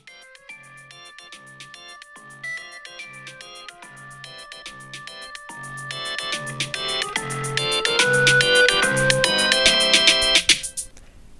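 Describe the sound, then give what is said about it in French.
A phone's melodic morning alarm ringtone repeats its bright, chiming pattern, steadily growing louder and fuller over about ten seconds before cutting off abruptly. No voices are present. “Or, si le téléphone fait ça, en réalité, Ce que nous entendons vraiment, ce dont nous nous rendons compte en émergeant progressivement du sommeil, c'est plutôt euh, ça.”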